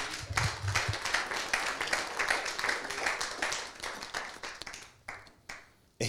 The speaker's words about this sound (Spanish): Dele el aplauso al que vive.